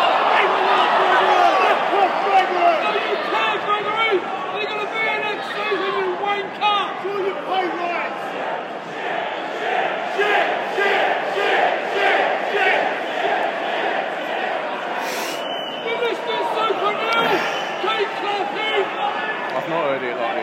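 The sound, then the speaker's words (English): A large stadium crowd boos loudly and steadily, a dense sustained roar of many voices filling the whole stretch with little letup. “Confidence is starting to, to, to fray and booze from the Lions' smoke.”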